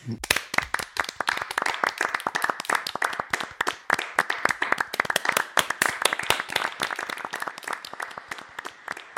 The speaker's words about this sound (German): Ich habe immer für mich applaudiert, so am Anfang des Tages.